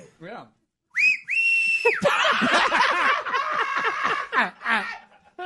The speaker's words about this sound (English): Whistle go ahead.